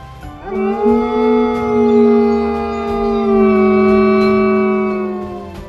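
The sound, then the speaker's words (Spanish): A single long, drawn-out howl from a hairless animal of about 70 kilos standing on its hind legs at the side of a trail, loud, holding a steady low pitch for several seconds before trailing off slightly, with no voices around it. “Todavía sobre sus patas traseras, caminó hacia el costado del sendero y lanzó un aullido.”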